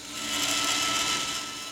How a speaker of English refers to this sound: Inside, bandsaws buzz and sanders whir.